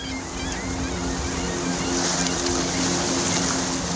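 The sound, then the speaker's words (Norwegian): A fishing boat's engine drones steadily at a low pitch as it moves slowly on cold sea water off Ingøy in Finnmark on a cold, cloudless April day in 2019. The water washes and rushes all around, with some wind, a constant sound with no break and no voices. “Det er skyfri himmel, og en fiskebåt kjører rolig på det kalde vannet utafor Ingøy i Finnmark.”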